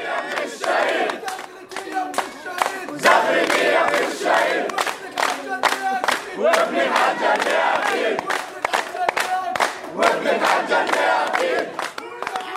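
A large funeral crowd chants slogans against Israel in loud unison, voices rising and falling in rhythmic waves, with sharp handclaps scattered throughout amid pushing. Dense and continuous, with no pause across the whole stretch.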